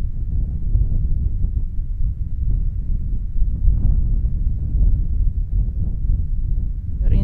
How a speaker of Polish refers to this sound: I to od takiego zwykłego wiatru, który wieje jak u nas w Polsce, do wiatrów, które krążą po 200 km na godzinę i po prostu trzeba krzyczeć do siebie, żeby cokolwiek usłyszeć. Więc wydaje mi się, że dźwięk najbardziej mi się kojarzył z wiatrem.